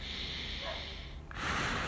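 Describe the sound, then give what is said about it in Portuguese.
A forceful exhale through the nose, given to relax in a moment of stress: a long breathy rush of air, a brief dip, then a louder, harder huff. No talking. “Ou né, quando você precisa, de repente, alguma coisa deixou você ali naquela situação de estresse, você também dá aquela rabufada.”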